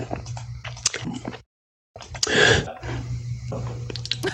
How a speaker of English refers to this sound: Lo-fi gulps to study to.